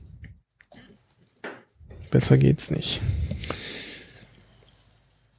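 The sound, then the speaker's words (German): A few sips and swallows of Berlin tap water with added fizz, with a soft bubbly hiss lingering, followed by a man briefly speaking. “Das ist äh, bestes Berliner äh, Leitungswasser mit Äh, Sprudel versetzt.”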